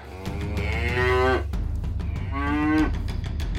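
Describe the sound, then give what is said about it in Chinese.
Two long, low moos from an old yellow ox pulling a cart, frightened while crossing the rushing Dongluo Creek. Each is a drawn-out harmonic bellow rising slightly in pitch, separated by a brief pause, loud and with no talking. “过溪的时候，连一路乖顺的在拉车的老黄牛们都害怕了起来。”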